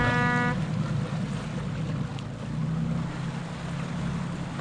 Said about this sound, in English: Uh, just for these boats right here. That's one of our boats leaving. The other two boats are docked beside that.